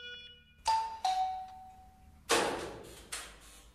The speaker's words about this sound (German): Die Sanitäter klingeln, dann kommen sie in Rigos WG.